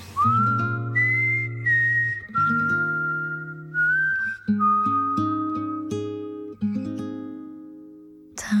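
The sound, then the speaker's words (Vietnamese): A slow Korean pop ballad intro plays, a clear whistle-like lead melody gliding over soft sustained chords and a steady low bass, with no singing yet. “một bài hát cuối cùng xin được dành tặng cho mọi người một ca khúc mà Trâm cực kỳ yêu thích”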